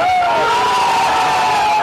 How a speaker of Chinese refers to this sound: 另外，赛马同样刺激，马匹穿越终点线那一刻，两旁冒出如雷欢呼。